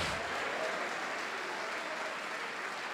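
An audience applauds steadily, a dense wash of many hands clapping at an even, sustained loudness for the whole stretch, with no speech over it.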